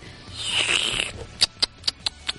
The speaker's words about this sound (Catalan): mira, aquí tinc una mica de salsa, espera't. Ara et xerruparé una mica. És, és que m'encanta aquesta salsa, eh?